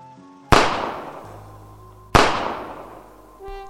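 Two loud gunshots from two people firing ring out about a second and a half apart, each sharp crack trailing off in a long echoing decay, over a faint humming background with no talking.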